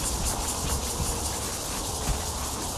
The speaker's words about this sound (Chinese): 可是那个车声有点吵。